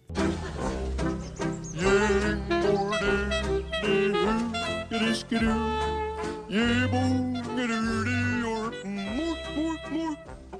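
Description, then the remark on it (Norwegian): A pop song plays steadily and loud, with a female singer's melodic lines carried over a thumping bass and regular beat, no talking over the music. “Vi må høre litt mer musikk før vi avslutter og avrunder sendinga her.”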